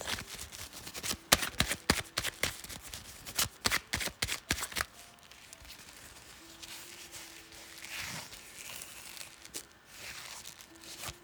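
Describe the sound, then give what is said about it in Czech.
Tarot cards being shuffled for a reading, a rapid burst of crisp slapping and riffling for about five seconds, then softer handling and faint rustles with a quiet background hum. No talking. “Já už se dívám na vaše fotky, míchám u toho karty a my se spolu podíváme, co nám Tarot poví o vás dvou.”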